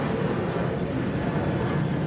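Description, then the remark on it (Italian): A steady, broad rumbling roar of an airplane passing overhead at Altofest, filling the background evenly without pauses and with no one talking. “La prima domanda, che è la domanda più curiosa, anzi quella che un po' di aereo ci fa bene”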